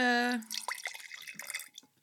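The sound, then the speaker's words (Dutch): A drink pours and splashes from a carton into a glass for about a second, with uneven dripping gurgles, right after a brief hummed vocal sound. “Ah, ik ga het even in een glas eh, schenken.”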